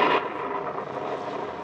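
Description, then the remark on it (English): Heavy rain drums steadily on a leaking roof, a dense, continuous hiss that stays loud and even throughout, with no voices over it. “Gosh, listen to that rain.”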